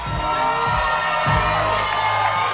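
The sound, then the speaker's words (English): A loud crowd cheers and whoops continuously, a dense wall of shouting voices with high excited calls rising above it, sustained at steady volume for a couple of seconds. “Make some noise for real jam.”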